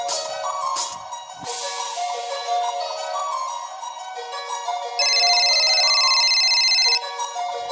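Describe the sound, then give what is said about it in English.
A melodic electronic phone ringtone plays on its own, steady and fairly loud, with a brighter, shriller stretch of ringing partway through. “Ring, ring, heard my phone ring, pick it up.”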